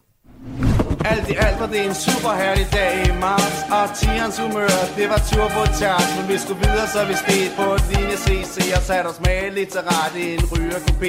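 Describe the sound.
A Danish rap song plays loud and continuous, with rhythmic rapped vocals riding over a steady, punchy beat and full instrumental backing from start to finish.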